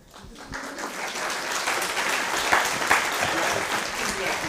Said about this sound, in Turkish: Başkan alkışlamayınca kimse de alkışlamıyor.